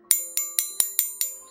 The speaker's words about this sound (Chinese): 叮当叮当，叮当叮当。老鼠奶奶仔细的听着。这是村子里报警的钟声，村子里肯定出大事儿了。